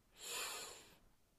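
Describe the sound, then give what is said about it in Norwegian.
A single deep inhale through the nose during a guided breathing exercise, a smooth airy rush that swells and fades over about a second, fairly quiet with no talking. “Pust godt inn.”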